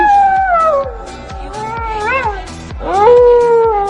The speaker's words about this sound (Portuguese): Cala a boca, coiote.